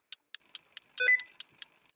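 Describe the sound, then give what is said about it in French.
A steady run of short, sharp electronic ticks from a pet's paw on a computer, evenly spaced, with a brief louder tonal beep in the middle; fairly quiet, with no voices. “Ah, c'est un bruit de beeper ou qui parce que...”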